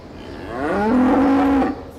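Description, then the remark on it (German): A single cow moos loudly, one long low call that rises, holds steady for about a second, then cuts off, with no talking around it. “Wir unterschätzen die Tiere offensichtlich und sie können nicht nur lernen, auf Toilette zu gehen. Sie kommunizieren auch miteinander.”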